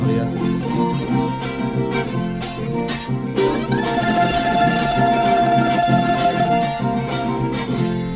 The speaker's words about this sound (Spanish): El tiple también tiene 12 cuerdas. Es un poco más, más robusto, más grave.